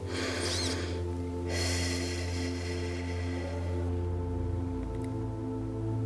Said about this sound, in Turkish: Ve derin bir nefes alarak gözlerimizi kapatıyoruz.